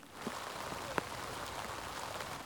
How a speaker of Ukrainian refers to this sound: Найкращу обстановку в Ізюмі цього дня описує тиша. Її порушує тільки дощ, б'є по білих пакетах, куди експерти складають людські останки.